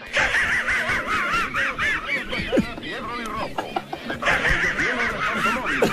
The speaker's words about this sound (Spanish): Ahí está la risa del perro Patán, que es la risa de un tabacómano o de una persona absolutamente liquidada.